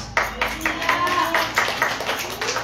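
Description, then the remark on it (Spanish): A crowd claps in praise of Jesus Christ in a steady, rapid rhythm, the applause dense and moderately loud throughout, with faint voices mixed underneath. “debe palmas a Jesucristo, hermanos.”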